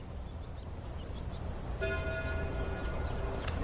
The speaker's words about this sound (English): At that moment, the church bells began to ring. The sound reached his ears. Above the sounds of the wind, and he stood there listening to the bells.